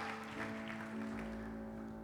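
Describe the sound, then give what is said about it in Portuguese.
An audience applauds the Lord in a steady, dense wash of clapping, with a sustained organ-like musical tone humming underneath throughout. “Aplauda o Senhor, Ele é digno de honra.”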